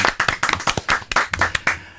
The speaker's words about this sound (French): Oh Qu'on peut applaudir. Oh, peut applaudir, bien sûr.